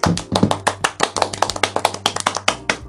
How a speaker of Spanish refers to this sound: Tercer episodio, un aplauso por favor.